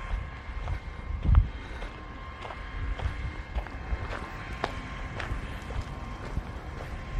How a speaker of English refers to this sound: Ah, it's the sprinklers working on this giant field over here and it's the water pump and whatever helping to run all the sprinklers for this field.